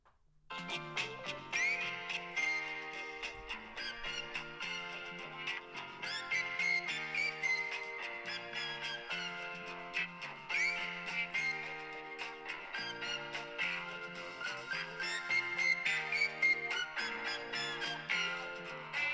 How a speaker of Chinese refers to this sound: 你的手机铃声是怎样的？哼给我们听一听。 手机你打我个电话不就有了？哎，我可以给你介绍一下这首歌。